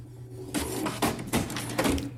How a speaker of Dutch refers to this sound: Ik heb hem hier voor me, het papiertje. En eh, ja, er wordt nog een tweede papiertje ook uitgeprint.